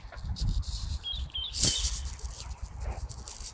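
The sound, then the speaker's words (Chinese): Birds sing in the trees: a few short, high chirps and whistles come over a steady, rumbling background noise, with one brief louder rustle in the middle and no one speaking. “还有几种别的鸟。”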